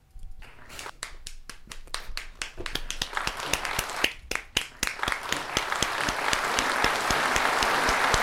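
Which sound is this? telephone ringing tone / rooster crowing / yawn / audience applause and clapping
audience applause and clapping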